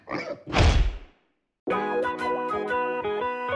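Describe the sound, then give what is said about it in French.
A single heavy hammer blow lands with a deep, booming thud after a brief scuffle of smaller knocks, rings out and fades, then after a short silence a bright, rhythmic music jingle starts. “Je vais lui rationner un coup de marteau.”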